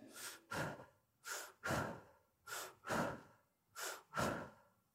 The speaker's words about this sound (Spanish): esta joven mujer de 44 años, que nos conocemos ya hace varios meses, que ahora está dormida, con una respiración superficial